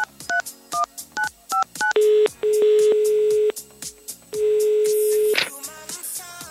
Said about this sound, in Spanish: A ver, le marcamos a este muchacho.